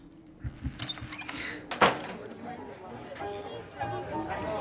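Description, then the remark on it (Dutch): A door is eased shut with one short, muffled thud partway through, amid soft background voices and faint room rustling. “Zachtjes met de deur.”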